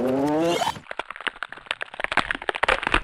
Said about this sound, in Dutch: dat geluid, dat is het typische sleutelbeengeluid natuurlijk. Dan eh, weet je hoe laat het is. Maar om zeker te zijn, want ik ben uiteraard ook geen dokter, laten we het nog e-, heel even terugspoelen. Maar iets trager, in slow-mo als het kan.